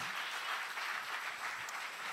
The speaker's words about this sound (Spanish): Si le va a dar el aplauso al Señor, adiós.